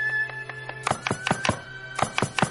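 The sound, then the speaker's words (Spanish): A knife strikes a cutting board in quick, steady chops as food is cut rapidly for dinner at home at night, a rapid run of sharp thunks over a faint tonal hum in the background. “Por la noche en casa de Gruñón, este corta rápidamente alimentos.”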